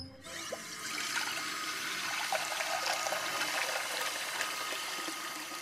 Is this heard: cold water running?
yes